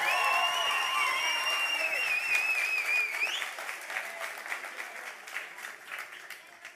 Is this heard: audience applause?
yes